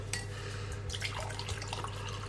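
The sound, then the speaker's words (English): A glass is taken out and organic Malbec wine from Argentina pours and splashes for a couple of seconds, with faint glassy clinks and a steady low hum underneath; no one speaks. “You might hear me getting a little glass out as well, by the way.”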